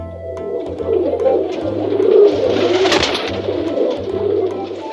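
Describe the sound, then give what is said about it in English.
Pigeons on a bridge coo in low, repeated throaty phrases, several overlapping birds, with a steady rustling, flapping bustle filling the background and no talking. “There are real pigeons on the bridge.”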